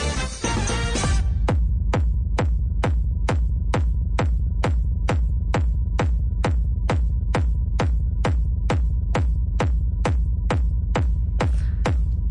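A pounding electronic dance track with a steady four-on-the-floor kick drum thumping about twice per second over a deep, droning bass, loud and continuous with no voices.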